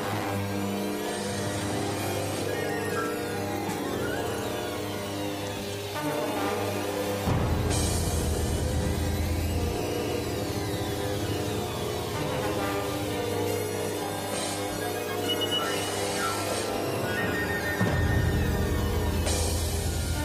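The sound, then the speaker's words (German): Full orchestral music plays throughout with sustained, layered harmonies. It swells twice into louder, fuller passages as deep bass enters, with no voices over it. “wo so ein Orchesterstück einmal aufflammt und dann auf der nächsten Seite weitergeführt wird”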